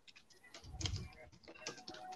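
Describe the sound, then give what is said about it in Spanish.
Rapid clicking of keys on a computer keyboard as someone types fast, a quick uneven patter of taps with a soft thump in the middle, fairly quiet overall. “Oye, ¿qué estás, escribiendo? Escribiendo rápido.”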